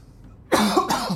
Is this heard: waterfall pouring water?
no